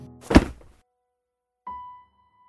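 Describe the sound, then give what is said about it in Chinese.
A mobile phone slips from a girl's hand during a call, drops and hits the floor with a single dull thunk and a brief clatter, followed by silence, then a faint, short electronic tone from the handset as the caller's voice keeps sounding. “这声如同霹雳般完全意料之外的话音，让荷西握手机的手突然失力。电话那头的声音还在响着，但女孩不敢看向地上的手机，只是愣在原地，完全不知所措。”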